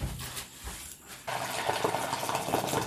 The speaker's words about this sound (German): Ich hole mal gerade kochendes Wasser.